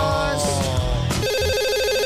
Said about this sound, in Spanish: Espera, que cojo el teléfono.